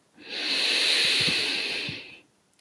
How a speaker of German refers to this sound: Und dann atmen wir dreimal durch die Nase ein und durch den Mund aus. Nimm so einen tiefen Atemzug durch die Nase ein.